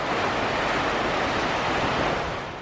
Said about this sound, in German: Neben oder unter uns rauscht der Fluss, mal laut, mal leise, je nachdem, wie nahe wir und die Straße gerade an ihn herankommen.